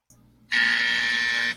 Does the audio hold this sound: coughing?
no